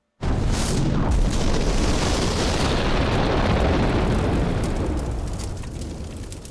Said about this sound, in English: Napalm is an incendiary agent. Anything it touches bursts into flame. Dousing it with water only intensifies the fire.